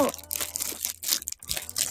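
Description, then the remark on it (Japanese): Crackly crinkling of a plastic bag being handled, with irregular bursts of rustle and crunch over about two seconds, a faint low hum underneath. “あ、袋の音がうるさいかしら大丈夫かな”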